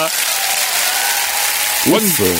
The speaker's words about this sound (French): mesdames, messieurs, une grosse main d'applaudissements.